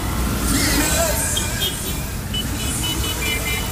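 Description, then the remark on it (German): Dense city traffic in Cairo rumbles steadily, with traffic jams, motorcycles and vans, a few short car horn toots rising above the din and indistinct voices mixed into the busy street noise. “Also die Stadt ist riesig, die ist voller Verkehr, hupende Autos, stehenden Stau überall, Motorräder, Vans.”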